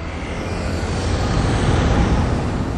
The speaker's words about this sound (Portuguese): Avenida larga, entupida de carros. De tuk-tuk. Tuk-tuk são aqueles carrinhos que andam aberto. ônibus cheio de pedestre.